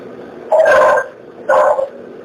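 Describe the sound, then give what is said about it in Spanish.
Dogs barking, two loud harmonic barks about a second apart, each drawn out for around half a second, with no voices in between. “¿Por qué tienen que por eso, por, por qué tienen que mover los perros”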